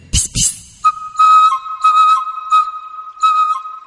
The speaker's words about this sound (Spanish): Oigo un silbido. ¿Quién me llama?